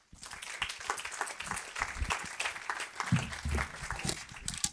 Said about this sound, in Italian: E fate un altro applauso al marketing specialist